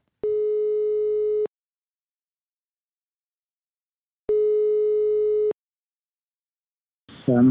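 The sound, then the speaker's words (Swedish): Two steady telephone ringback tones from a call to a real estate broker, each lasting just over a second and separated by a long silent pause, followed by a person briefly answering at the very end. “Vi ringer upp eh, mäklaren så hör vi om han har försökt avråda från det här eller någonting.”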